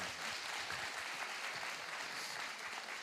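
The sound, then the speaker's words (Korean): An audience claps steadily for about three seconds for a guest who works as an asset manager, a dense, even patter of many hands at moderate loudness with no talking over it. “자산 박수 한번 주세요.”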